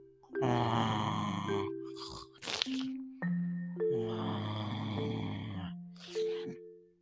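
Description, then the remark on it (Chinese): Loud, rough snoring imitated by a voice as the big bad wolf asleep in bed in the Little Red Riding Hood story: a long rattling inhale, a few short snorts, then another long growling snore and a brief final snort, with no spoken words. “这个不是你爸爸在睡觉的打呼声，是大野狼哦。”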